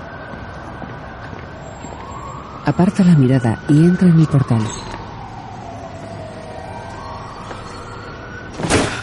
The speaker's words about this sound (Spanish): coche de policía pasa.